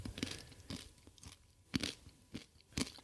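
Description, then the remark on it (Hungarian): Crisp crunching as someone carefully bites and chews a piece of roasted beetroot with sea salt, several sharp bites spaced irregularly over a few seconds, no talking. “most egy céklát vesz óvatosan a szájába.”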